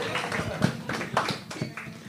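An audience applauds briefly to welcome a guest: a couple of seconds of scattered, uneven clapping with sharp individual hand claps, moderately loud and steady throughout, with no one speaking.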